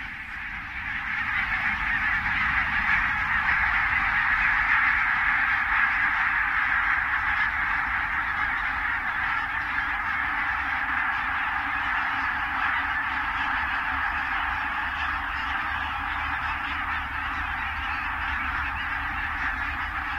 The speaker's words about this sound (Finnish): Sitten jos on tuhansista hanhista kysymys, niin se kertaantuu ja voi kuulostaa aika eksottiselta. Kuunnellaan nyt tällainen valkoposkihanhiparven lentoon lähtö ja siinähän tuo humahdus on ihan selvästi kuultavissa.